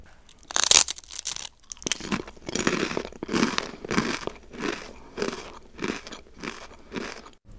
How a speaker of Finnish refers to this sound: Tässä rouskuttelen näkkileipää, joka on valmistettu viljasta